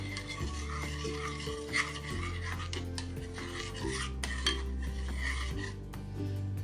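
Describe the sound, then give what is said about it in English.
A spoon stirs espresso extract together with a tablespoon of coffee-flavored liqueur, making a continuous rasping, scraping swirl with occasional brighter scrapes, over a steady low musical tone. No one speaks. “And I'm just gonna stir those together and then set this mixture aside to cool off a little bit.”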